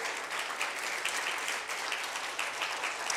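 Steady applause from an audience, a dense wash of many hands clapping at a fairly even level for a few seconds, with no voices standing out.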